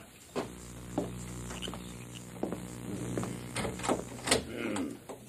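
An apartment door in Del Río is opened at night without the light being turned on, with a series of sharp clicks and knocks from the latch and handle spread over several seconds, above a steady low hum.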